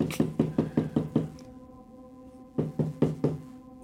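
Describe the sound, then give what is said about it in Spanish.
Knocking on a door: a quick series of about six firm raps, a pause with a faint lingering hum, then four more knocks, fairly loud with no voices. “Oye que termina la canción, ya no vuelven a poner eh, play y toca.”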